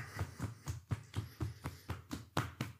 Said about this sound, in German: Vielleicht erreichst du deinen Fußsohlen mit deinen Fingerspitzen und klopfst auch die aus.